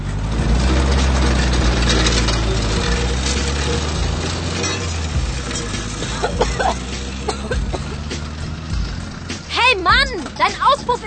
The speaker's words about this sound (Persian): لوله اگزوز ماشین چنان ترق و طرق می کند که عصبانیت زنی را انگیزد